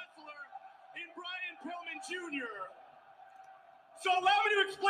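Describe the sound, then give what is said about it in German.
A large wrestling crowd chants and yells the insult "Asshole" in unison, loud and echoing, with a sustained drone beneath and a fresh surge of shouting near the end. “Ja, also er hat jetzt maximales Heat erreicht, würde ich behaupten, weil die Zuschauer schreien jetzt Asshole, Asshole.”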